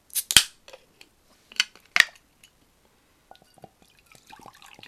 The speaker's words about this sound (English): Crack open the next beer while we're at. Sorry, just to pause quickly. We're having a uh, Badger Brewery Tanglefoot, which is a classic golden ale, uh, and Badger is brewed in Dorset. Um, pre silence for the crack. Pre silence for the crack.